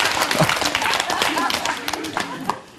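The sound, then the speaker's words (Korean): A crowd claps rapidly and steadily while laughing together on a speaker's cue, the dense patter of many hands mixed with voiced laughter before easing off at the end. “자, 이제는 박수를 치면서 한번 웃겠습니다.”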